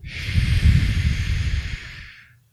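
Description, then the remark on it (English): A single long, deep breath in through the nose and out through the mouth, as if blowing through a straw: a rushing, airy hiss with a soft low rumble that swells quickly and then tapers away over about two seconds, with no talking. “What I'm going to invite you to do is take a deep breath in through the nose, very deeply, more so than you normally would, and then out through the mouth like you're blowing through a straw.”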